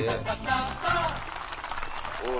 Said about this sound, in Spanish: Un aplauso. Qué bueno,